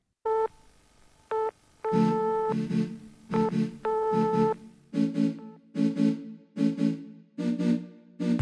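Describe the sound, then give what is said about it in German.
Telephone-line tones open a radio show's theme jingle: two short, steady beeps, then longer tone bursts that blend into a rhythmic musical pattern of pulsing notes repeating to the end. No voices. “dass das Gespräch in dieser Telefonleitungsatmo ertönte, auf die die Erkennungsmelodie der Sendung anspielt.”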